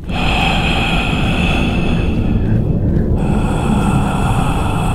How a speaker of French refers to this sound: Plus de musique, juste un long tunnel plongé dans le silence. Le premier réflexe est donc d'essayer de le franchir. Au fur et à mesure de votre chemin, vous commencerez à entendre des bruits inquiétants, des voix, des respirations fortes.